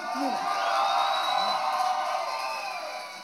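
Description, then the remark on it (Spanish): An audience, including people in the upper seats, applauds and cheers in a dense, steady roar of clapping and voices, with a few whoops rising above the wash of noise for about three seconds. “me encanta, me encanta que la gente de arriba también aplaude.”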